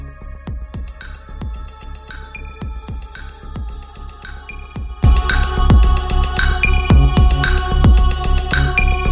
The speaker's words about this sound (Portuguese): Entre as tantas notícias e acontecimentos que circularam no tumultuoso ano de 2020, quem não lembra do temor causado por conta da informação de que uma nuvem de gafanhotos se aproximava do nosso país?